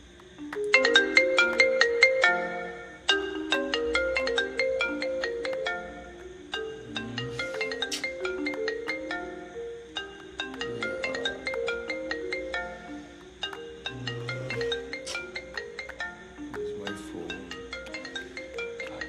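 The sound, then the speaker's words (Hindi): A melodic phone ringtone of an incoming call plays continuously, a bright looping tune of quick electronic notes repeating in phrases, clear with no one speaking over it. “this the time आप किसी को फ़ोन करते हो”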